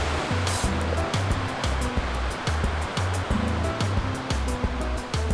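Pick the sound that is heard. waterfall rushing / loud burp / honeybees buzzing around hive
waterfall rushing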